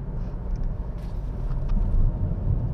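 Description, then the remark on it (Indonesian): Steady low engine-and-road rumble from inside a moving car, a continuous droning hum with no speech and only faint, brief higher rustles now and then. “gue lagi pakai masker ya gue jalanin uh, prokes walaupun di dalam mobil jadi sorry kalau suaranya agak enak”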